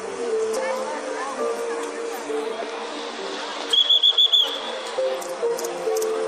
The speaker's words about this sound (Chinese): 我想，刚刚这几声哨子声，大家一定是听得非常清楚的。他们也是很辛苦的。